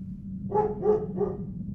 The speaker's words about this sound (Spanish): Una vez que se acomodó, mi padre optó por reclinar el asiento y dormir un poco pero en eso estaba cuando el ladrar de un perro lo despertó.